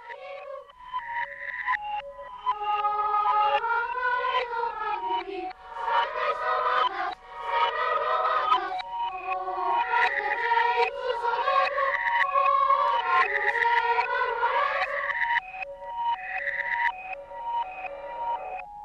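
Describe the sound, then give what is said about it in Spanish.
A children's song about a cat played backwards: warbling, reversed vocals and melody with odd swelling and gliding tones, loud and continuous for nearly twenty seconds, with no one talking over it. “al derecho y al revés, como el gato de la canción, que sonaría así si la ponemos al revés.”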